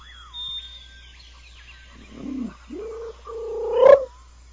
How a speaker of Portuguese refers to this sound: Acabou de chegar do meu lado aqui o pombo. que o pombo, o pombo tá querendo. O pombo tá afim de dar uma, uma palhinha aqui.